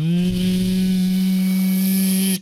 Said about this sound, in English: And the flickering glow stops flickering, and the distorted hum is no longer distorted as the pomegranate glows brighter and brighter, perfectly golden, and hums